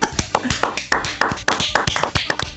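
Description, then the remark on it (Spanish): Applause from a group welcoming Chilean football commentator Claudio Rodrigo Palma: a dense, irregular patter of many hands clapping at a steady, moderately loud level for a few seconds, with no voices over it. “Y, y nada, pues quiero presentarlo con un gran aplauso chiquillo con ustedes, don Claudio Rodrigo Palma.”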